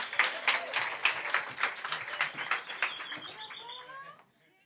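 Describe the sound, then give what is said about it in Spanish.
After a prayer, a crowd breaks into steady applause, many hands clapping in a dense, crackling wash that holds for about four seconds before cutting off abruptly. A few faint whistles rise through the clapping near the end. “Un aplauso, señores.”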